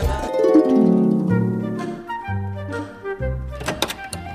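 A bathroom door swings open with a long, wavering creak that shifts in pitch, ending in a few sharp latch clicks and a thunk, with no talking.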